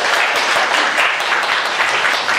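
A live audience breaks into steady applause, a dense wash of many hands clapping at an even loudness for the full stretch, with no voices rising above it.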